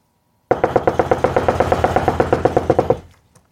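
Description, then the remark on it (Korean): Someone imitates the sound of a woodpecker pecking a tree with its beak: a fast, steady burst of about twenty sharp knocks lasting a couple of seconds, fairly loud, with no talking over it. “딱따구리가 나무 쫄때 어떤 소리 나냐면 내가 흉내 낼까?”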